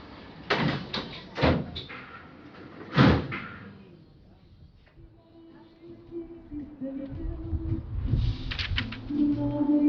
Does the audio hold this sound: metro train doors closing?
yes